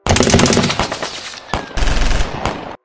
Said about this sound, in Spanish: Después de un intercambio de balas, logran neutralizar a la mayoría.